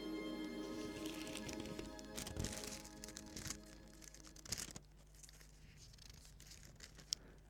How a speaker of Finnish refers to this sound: Jo legendaariseksi, legendaariseksi tullut ääni. Ison kirjan kahina.